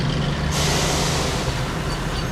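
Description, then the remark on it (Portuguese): A heavy logging truck loaded with timber rumbles along the Trans-Amazonian Highway with a deep, steady engine drone, then a sudden loud hiss of air brakes bursts out and lingers over the low roar. “A estrada ouve todos os dias o barulho pesado dos caminhões.”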